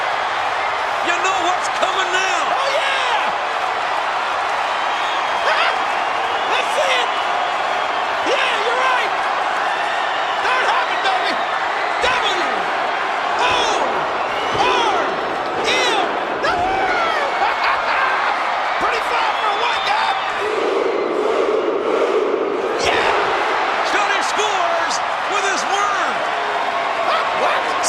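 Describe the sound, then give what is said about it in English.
A loud, steady roar of a wrestling crowd cheering throughout, punctuated by sharp thuds and slams from the ring, with a lower swell of noise near the end. “The crowd's into this one.”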